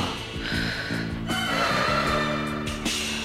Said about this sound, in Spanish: Una silla raspó el piso y provocó un sonido nada agradable para los oídos de los integrantes de El Club de la Nostalgia.